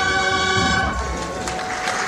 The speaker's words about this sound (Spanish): Los aplausos de toda la calle, una petalada.